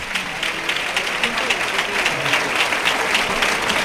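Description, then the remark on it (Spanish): A bullring crowd gives matador José Mario Manzanares a sustained final ovation, dense steady applause with many hands clapping at once, loud and continuous throughout, with a murmur of voices mixed into the roar. “Saluda ya la ovación final Manzanares.”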